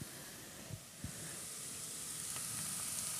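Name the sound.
meat sizzling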